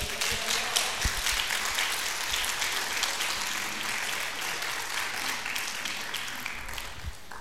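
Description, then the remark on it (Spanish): Sustained applause from a large crowd clapping for God, a dense, steady wash of many hands clapping for several seconds at an even volume, with no one speaking over it. “¿Cuándo le da un aplauso fuerte a Dios?”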